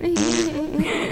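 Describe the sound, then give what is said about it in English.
A person vocally imitates a fart with a sustained, buzzy, sputtering mouth noise lasting about a second, fairly loud, followed by a bit of laughter. “It sounds like, like, a giant fart. It sounds like this.”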